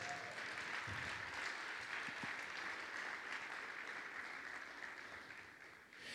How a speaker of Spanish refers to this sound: Dales un aplauso a ellos.